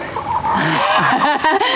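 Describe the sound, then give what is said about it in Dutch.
A rooster and hens cluck in a chicken coop, a steady jumble of overlapping throaty calls and brief squawks lasting a couple of seconds, with no voices over them. “Dit is Foppe, de haan.”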